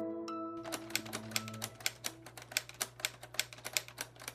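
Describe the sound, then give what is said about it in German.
Typing on a typewriter built from Lego bricks: a brisk run of sharp clacking keystrokes in an uneven rhythm over a low steady hum, with a short tonal ring at the very start and no voices. “Ja, ich finde, wenige Geräusche können einen so schnell so nostalgisch machen wie Schreibmaschinen tippen.”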